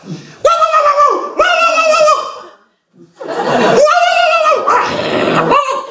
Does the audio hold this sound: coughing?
no